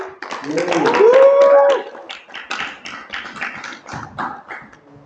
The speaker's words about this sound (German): Ein Applaus